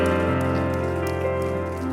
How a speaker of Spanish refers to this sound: Un aplauso grande al Señor que merece lo mejor.